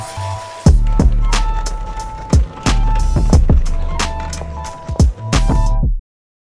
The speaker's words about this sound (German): Ich äh, leite es trotzdem noch einmal mit unserem Jingle ein. Wir gehen nämlich noch mal kurz in den Einkaufswagen.